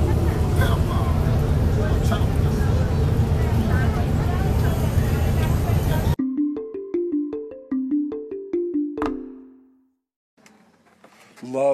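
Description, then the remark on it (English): Steady rumbling bus interior ambience with a faint murmur of voices for about six seconds, then it cuts abruptly to a short run of plucked, descending musical notes. “I'm going to get back to my, my bus trip here.”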